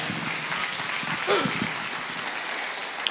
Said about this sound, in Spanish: Dale otro fuerte aplauso de gloria.